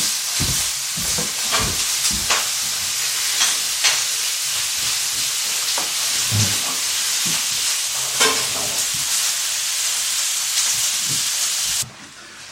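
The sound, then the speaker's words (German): Steady sizzling of food offcuts frying in a pan, with repeated scraping and clattering as they are stirred, fairly loud throughout, the hiss shifting abruptly near the end. “So, ich tue hier gerade mal oh, die Abschnitte von unseren Schnitzereien die wir hier in die Pfanne.”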